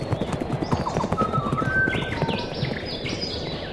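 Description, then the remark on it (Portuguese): Horse hooves clip-clop in a quick, steady rhythm, fairly loud, as a horse-drawn chariot carrying warriors races across a plain toward birds. Bright chirps and whistles from the birds being chased rise over the hooves in the second half. “Dictiri montou em uma biga e, junta de mais nove guerreiros, partiu pela planície em direção às aves”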